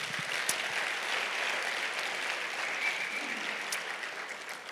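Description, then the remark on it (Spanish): An audience applauds the Lord steadily, a dense wash of many hands clapping at an even, moderate level throughout with no voices over it. “¿Cuántos pueden dar un aplauso al Señor por esto?”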